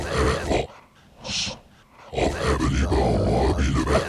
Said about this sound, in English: A swing. A swing. Yes, it's the sounds. A swing.